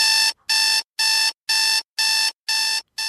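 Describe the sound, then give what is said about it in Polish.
A phone alarm clock rings at seven on a Monday morning in a steady series of loud, bright electronic beeps, about two per second with short gaps between them, clear with no one talking. “Dzwoni budzik.”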